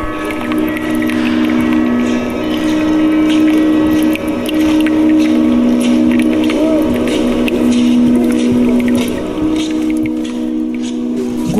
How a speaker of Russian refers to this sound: Гудок парохода слышали? Да. Здесь по пруду курсировали два парохода, сделанных на Воткинском заводе. Эти пароходики долго служили людям, перевозили рабочих по пруду. Этот гудок мы с вами слышали. Куранты били куранты на башне завода.